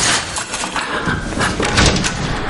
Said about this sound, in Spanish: Abre la puerta de una luminosa sala de exposición.